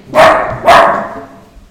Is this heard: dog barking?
yes